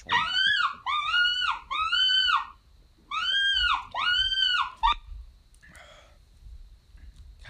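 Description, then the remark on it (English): A coyote greeting howl, played from a caller speaker to lure coyotes on a coyote hunt, rings out in five loud, wavering, arched yowls in two quick bursts with a short gap between, followed by a faint scratchy rustle and quiet. “We'll go for our greeting.”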